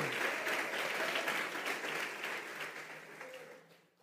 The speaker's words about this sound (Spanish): Dale palmas fuertes a Él.